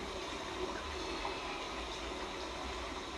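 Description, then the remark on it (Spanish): A river rushes along with force down a slope, a steady, full hiss-and-roar of flowing water that stays even and loud throughout, with no voices over it. “Y este río avanza ahora con mucha fuerza porque hay pendiente también.”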